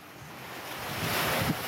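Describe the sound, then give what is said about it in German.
Ocean waves wash onto the beach at Manly in Sydney, Australia, in the early morning, a steady, broad rush of surf, with wind noise brushing the microphone and one slightly louder swell near the end. No voices. “Es ist früher Morgen am Strand von Manly, einem Stadtteil im Hafen von Sydney.”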